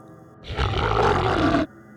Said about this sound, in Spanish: Entonces, un nuevo sonido cruzó su habitación un gruñido.